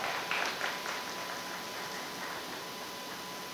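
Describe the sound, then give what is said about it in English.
An audience claps for hairstylists in a steady round of applause, a dense crackle of many hands that holds at an even level for a few seconds, with no voices over it. “Round of applause for all the hairstylists.”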